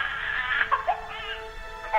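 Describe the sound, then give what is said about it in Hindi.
A baby boy lying on a bed wails in a steady, high-pitched cry with wavering pitch and brief catches between sobs, continuous, with no talking over it. “कमरे से उसके बच्चे की जोर जोर से रोने की आवाज आने लगी विजय ने अंदर जाकर देखा तो पाया कि उसका बेटा बिस्तर पर लेटा रो रहा था”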